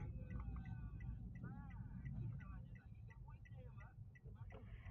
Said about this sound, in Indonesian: oke ada mobil belok depan gue mobil gede coy